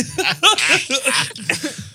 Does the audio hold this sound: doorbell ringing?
no